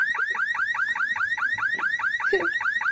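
A car alarm blares loudly, its siren rapidly sweeping up and down in a steady, repeating warble for the whole stretch, with no voices over it.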